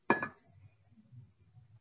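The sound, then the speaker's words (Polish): A drinking glass that the speaker is drinking from clinks once against a hard surface as it is set down, a short bright knock with a brief ring, followed by faint low background rumble. “Każda rzecz, szklanka, e, z której teraz piję,”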